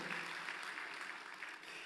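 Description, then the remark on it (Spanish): An audience applauds, many hands clapping in a dense, steady wash of sound that holds at an even level for about two seconds, with no voices over it. “Les damos un aplauso entonces.”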